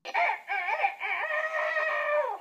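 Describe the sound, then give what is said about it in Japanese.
A drawn-out, warbling chicken call rings out loud as one continuous squawk lasting a couple of seconds, with no talking around it. “このあの英語版もねこのあの鶏の声です。同じ音です。”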